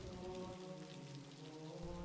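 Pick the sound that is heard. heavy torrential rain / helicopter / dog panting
heavy torrential rain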